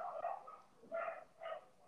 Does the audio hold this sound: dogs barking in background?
yes